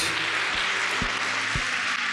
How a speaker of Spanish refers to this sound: Gracias. Podemos dar un aplauso para todos ellos.